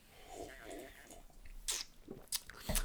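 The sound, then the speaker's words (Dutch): Several short, wet slurping sips from a large glass, fairly quiet, arriving in quick bursts toward the end with no one talking. “Ik wilde zeggen, zal ik heel, eh, heel ehm, nonchalant aan dat ding lurken, slurpen.”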